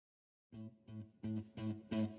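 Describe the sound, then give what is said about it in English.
A rock song, played as a musical break, kicks in after a brief silence, with a distorted, heavy riff repeating in short rhythmic stabs that grow louder and fuller over a couple of seconds. “We're gonna go ahead and cut out to a little musical break right now.”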